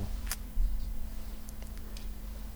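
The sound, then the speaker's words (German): A few sharp, sticky little ticks and crackles as a thin plastic protective film is peeled off in one piece, spaced irregularly over a steady low hum, with no one talking. “Das schmatzt. Nee, das ist diese kleine Folie jetzt.”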